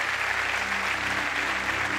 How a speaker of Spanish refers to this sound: ¡Wow! No, aplaude más que eso para que se escuche en todo el mundo.